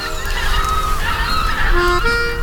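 A flock of white-fronted geese honks and yelps continuously, many overlapping calls forming a dense, fairly loud chorus with no voices present.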